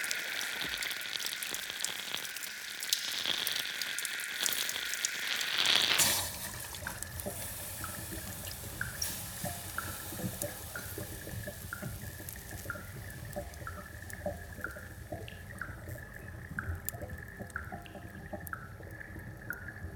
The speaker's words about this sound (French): Il y a deux sortes de bruits, 1. L'égouttement de l'eau. La pluie qui doucement remplit les égouts.